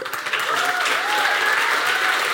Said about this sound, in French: Voilà, donc vous pouvez les applaudir.